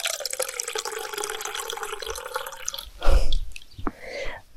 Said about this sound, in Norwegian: Det er lyden av morgenkaffe.